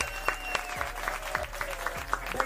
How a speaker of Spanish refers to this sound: Este aplauso es para la diosa de Cuba. Aplausos, aplausos